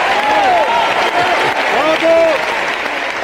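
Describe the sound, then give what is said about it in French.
A crowd claps steadily and loudly for a few seconds in applause for a joke, a dense continuous patter with a few voices rising over it. “Et je pense même qu'elle mérite quelques applaudissements.”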